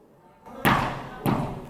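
Two loud, sharp knocks by a man on a glass window of the Legislative Assembly, roughly half a second apart, each a heavy thud that rings out briefly over a steady murmur of background noise.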